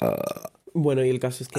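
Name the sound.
burp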